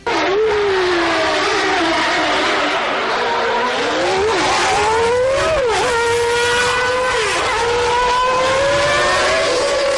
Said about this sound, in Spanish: Pero antes de eso, yo siempre lo digo, hay que escuchar, pues, por lo menos para recordar cómo sonaba la Fórmula 1.